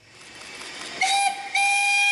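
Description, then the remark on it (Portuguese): The historic Douro steam train, running on the Douro line between Régua and Vila Real stations with a stop at Pinhão, sounds its whistle in two shrill blasts, the second longer and sustained, over a breathy hiss of steam and rumbling rail noise, loud. “Desde a década de 90 que o comboio histórico apita neste troço da linha do Douro”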